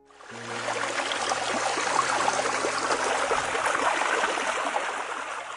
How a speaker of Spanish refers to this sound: Pero una gota sumada a otras se vuelve un hilo de agua. Si los hilos de agua se unen, formarán un arroyito. Bajando de la montaña, los arroyos se unirán hasta formar un río.